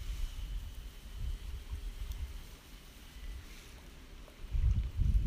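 Gentle lake water lapping against the shore of Lake Shikaribetsu with steady wind rumbling across the microphone, low surges swelling now and then, continuous with no voices.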